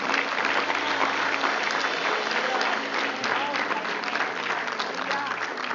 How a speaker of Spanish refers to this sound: Dale un aplauso a Dios.